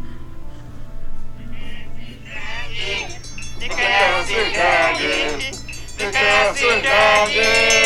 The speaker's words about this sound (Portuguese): Não é Jack, não, é jumento.